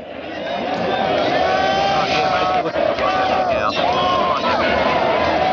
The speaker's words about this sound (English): why don't you stick your head out that window and uh, see if the crowd settled down at all?